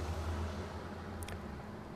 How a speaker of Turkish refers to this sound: Şimdi editsizini göreceksiniz. işte böyle arada araba sesleri falan. Bunların hepsini kesmek zorundayız.